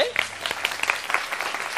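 An audience claps steadily, a dense patter of many hands at moderate loudness with a few sharper individual claps standing out, continuing evenly without voices on top.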